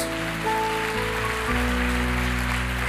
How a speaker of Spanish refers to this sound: Démosle fuerte aplauso al Señor por ellos.